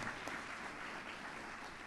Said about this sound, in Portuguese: Você não vai aplaudir bem forte o caráter do teu Deus? Aí na sua casa, aplaude a Deus agora.